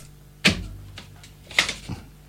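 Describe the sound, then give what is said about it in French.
A key turning in the lock of a booth door: a sharp metallic clack, a couple of softer clicks, then a second clack and a final click, all over a faint steady hum. “Euh, alors attendez, je vais, je vais fermer la clé”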